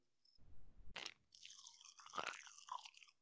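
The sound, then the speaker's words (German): Chewing with a dense burst of fizzy crackling and popping, like popping candy gum snapping in the mouth, continuous for a few seconds with no talking. The gum is Magic Gum, a crackling chewing gum sold in small blue packets. “was aus unserer Kindheit? Magic Gum.”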